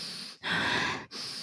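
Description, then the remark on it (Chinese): A voice imitates heavy, raspy breathing: three breathy, noisy pulls of air with short pauses between them, the middle one longest and loudest. It imitates the heavy breathing of a person on the other end of a phone call, who then hung up. No words are spoken. “就是一个很沉重的喘息声，然后突然就把我挂掉电话”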